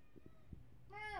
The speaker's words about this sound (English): Yeah, also we're hearing some pretty intense meows. Come here, Cindy. Cindy. Cindy, come.